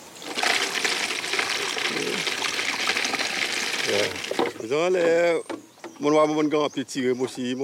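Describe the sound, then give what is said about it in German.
Palm sap, already mildly alcoholic, is poured from collecting containers up in the palm crown into a brought canister for about four seconds, a continuous gushing splash. Then the pouring stops and a man starts speaking. “Mit flinken Fingern löst Sony oben in der Palmenkrone die Auffangbehälter und gießt sie in den mitgebrachten Kanister”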